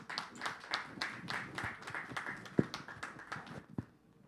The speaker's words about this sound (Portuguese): Dê mais uma salva de palmas ao Senhor.